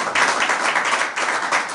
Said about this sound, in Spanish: ¿Quiénes están acá por primera vez? ¿Quién viene a un evento de estos por primera vez? Ah, bueno, fuertísimo aplauso para ustedes.